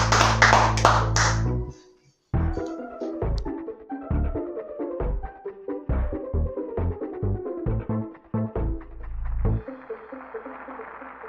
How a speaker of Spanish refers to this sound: Vamos a dar un aplauso que sacamos el segundo, el este segundo episodio.